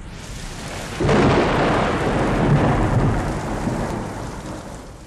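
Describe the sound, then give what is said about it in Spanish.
Steady rain hisses throughout while a deep roll of thunder breaks in after about a second and rumbles on, slowly fading. No voices. “Al pie de la Sierra Madre Oriental retumba Catataín, trueno viejo en lengua totonaca, y los mazatecas hablan de que se acerca el mes de trueno grande.”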